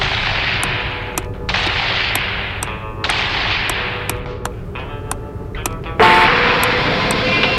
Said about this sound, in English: do you mind not hitting your car seat with your feet like that?